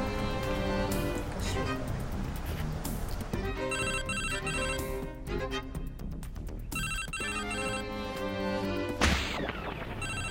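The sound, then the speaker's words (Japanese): A mobile phone ringtone plays loudly and continuously as the phone is being called, a bright melodic electronic tune repeating its phrases for the full ten seconds with no voices over it. “あれ携帯うんちょっと電話鳴らしてみますねうん”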